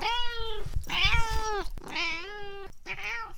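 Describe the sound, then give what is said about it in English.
A fat male cat named Kipper meows four times in quick succession, each call drawn out and wavering, fairly loud with no one talking over it. “Cats sleeping in glass houses are not always nesting queens, they may be just fat boy cats.”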